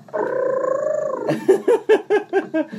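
A woman's voice holds a loud, rapid rolled-R trill for about a second, then launches into six punchy, evenly spaced vocal syllables, energetic like a jingle, from the K-1 World MAX opening theme, in the style of a female ring announcer.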